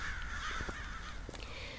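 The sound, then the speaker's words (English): Harsh, raspy crow caws sound against a steady outdoor background hiss, a few rough calls close together, with no one talking. “Crows were horrible, garbage eating birds.”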